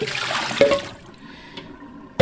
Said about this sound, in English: Um, I know running water over it seems like it would be a good idea, but you're not getting all the sand and dirt. So you really have to just submerge those vegetables, uh, especially the green leafy ones like parsley, and uh,